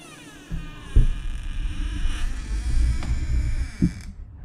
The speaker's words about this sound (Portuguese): O zumbido era tão alto que eu não conseguia nem me ouvir, pensar eu não podia fazer nada além de prosseguir.